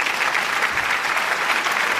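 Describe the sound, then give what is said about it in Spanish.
A steady burst of applause from a sizable crowd, given to journalist Carlos Enrique Bayo of Público at the start of a radio section, dense overlapping clapping at a constant loudness throughout, with no voices on top. “Avui ho farem al revés, li tirem aquest aplaudiment.”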